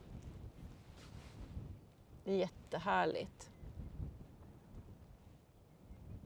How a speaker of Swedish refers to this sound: Och sen blåser det ju jämt så man blir mm. ganska trött också.